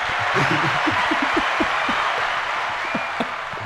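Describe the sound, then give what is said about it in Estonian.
A large Estonian volleyball crowd applauds loudly and continuously in ecstasy, a dense wash of clapping filling the space with scattered cheers and voices mixed in. “Eesti võrkpallipublik on äh, ekstaasis, nagu sellest aplausist aru saime”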